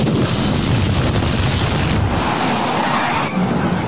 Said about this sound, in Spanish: Parece que hubo una explosión en la casa de los Simpson.